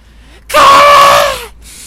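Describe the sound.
A voice imitates a woman's scream: one loud, high, sustained shriek lasting about a second, pitch wavering slightly before trailing off, with quiet background noise on either side.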